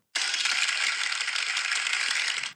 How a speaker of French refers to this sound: Ça, c'est les gens qui m'applaudissaient pour ma prestation de, de faux bruit de guitare.